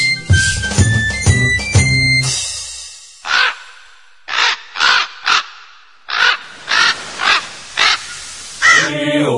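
A raven caws about ten times in harsh, raspy bursts, spaced irregularly and loud, after a brief stretch of tonal, melodic sounds at the start.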